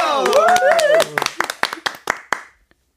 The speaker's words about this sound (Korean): 박수 한번 주세요. 박수. 박수.